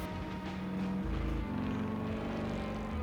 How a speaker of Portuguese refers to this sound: agora perseguição de moto, né?